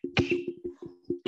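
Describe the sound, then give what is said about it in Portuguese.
A sharp sneeze bursts out once near the start, followed by soft voiced murmuring and a second abrupt breathy burst right at the end. “Saúde.”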